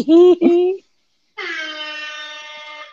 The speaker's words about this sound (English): that deserves air horn, damn it.